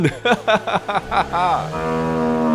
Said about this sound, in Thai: ลูกวัวที่เล็มหญ้าอยู่ไม่ไกลจากริมสะได้ร้องทักขึ้น อย่างไม่กลัวว่าลูกเป็ดนั้นจะเสียใจ